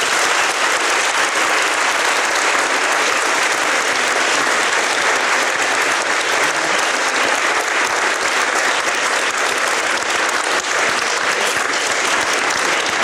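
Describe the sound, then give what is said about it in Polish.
Sustained audience applause for the participants of a debate, a dense, steady wash of many hands clapping at an even loudness for the whole stretch, with no voices standing out. “Y, Proszę o brawa dla y, uczestników naszej debaty.”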